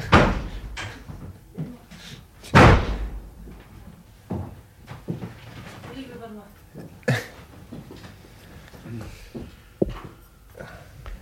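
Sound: door being shut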